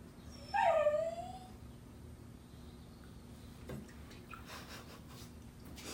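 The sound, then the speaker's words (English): A dog gives one short, high-pitched whine that slides downward in pitch, fairly clear, followed by several seconds of quiet noise with faint rustling. “He sounds cute too. A little whine.”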